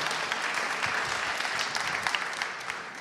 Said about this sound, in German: Ein Applaus ganz schnell hier, die beiden. Wunderbar. Willkommen.